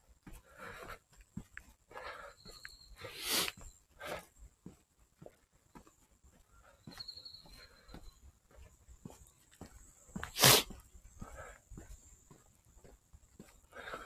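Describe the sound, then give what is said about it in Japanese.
Someone with a runny nose sniffles while out walking, with a couple of sharp, hissy intakes, the louder one near the end, over quiet crunching footsteps and faint background rustle. “鼻をすすっております。”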